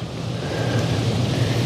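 Steady, fairly loud wind rushes without a break during a boat ride on the Rhine, with a deep droning rumble underneath, like an engine. No one speaks.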